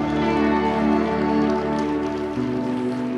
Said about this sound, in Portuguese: Para mim tá ótimo, para Jesus tá fraca essas palmas, vamos ver.